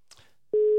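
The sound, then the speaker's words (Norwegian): A telephone busy signal on a failed call: after a moment of faint rustling, a loud, steady electronic beep starts abruptly and holds to the end, clear with no talking. “Neste gang tror jeg vi må ringe sentralen der nede i Kvinesdal.”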